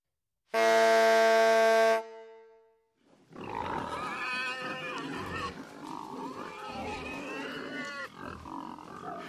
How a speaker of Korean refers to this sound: 이때 우연히도 보리배기가 끝난 밭에서 돼지떼를 몰던 돼지치기가 뿔나파를 불어 그 소리로 돼지를 모았는데